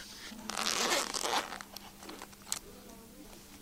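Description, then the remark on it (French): A pencil pouch is unzipped in one long, raspy pull lasting about a second, followed by a few soft clicks and rustles of items being handled. “ça c'est sa pochette”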